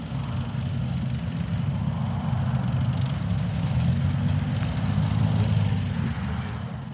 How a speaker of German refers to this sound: Drei olivgrüne Leopard 2 Panzer rollen über eine weite sandige Fläche. Über ihnen kreist ein weiß-rot-blaues Flugzeug.